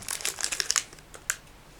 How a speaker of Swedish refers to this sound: Ska vi se. Kakan spräcks nu